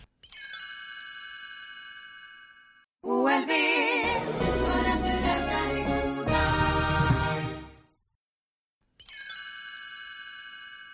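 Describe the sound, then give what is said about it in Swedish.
A TV commercial jingle for OLV chips that closes the ad: bright sustained chime tones open it, then a short, loud burst of full-band music with a sung melody, a sudden stop, and the chimes ringing again. “Och eh, sen avslutas den här reklamen med en reklamjingel.”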